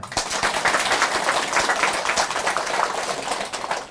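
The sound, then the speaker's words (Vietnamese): A crowd applauds steadily for about four seconds for a correct answer, a dense, even patter of many hands clapping at once, fairly loud throughout with no voices rising above it. “xin dân trần một tàn vỗ tay thật là lớn vì trả lời đúng rồi”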